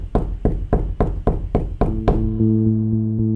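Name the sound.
knocking on a door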